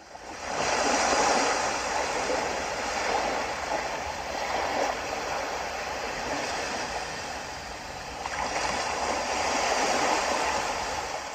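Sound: ocean waves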